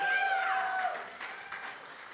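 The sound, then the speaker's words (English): An audience claps in sustained, steady applause for its youth who went to a youth convention, with a brief whoop or cheer rising above the dense patter near the start before the clapping gradually thins. “We also had our youth go to youth convention. Let's hear it for them. Come on.”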